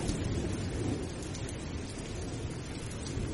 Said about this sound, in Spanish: Oye, nos has dejado aquí entre la lluvia que se oía de fondo.